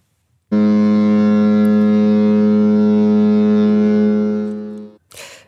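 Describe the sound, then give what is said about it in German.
A ship's funnel blasts in one deep, loud, long, steady, droning hoot lasting several seconds before cutting off, followed by a brief rush of noise. “Das ist jetzt eine Schiffschemie, die wir hier hören.”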